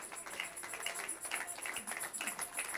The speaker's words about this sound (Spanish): O oh, alguien póngase de pie y déle un aplauso al que creó los cielos y la tierra. Un minuto de aplauso al Señor.